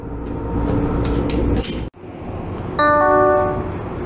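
A subway train bound for Pankow rumbles along steadily with a broad, continuous roar. It briefly dips to near silence, then resumes with a high, steady electric whine layered over the rumble.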